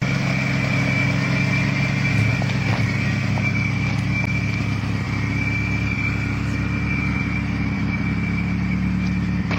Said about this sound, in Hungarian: Ez az alapjárat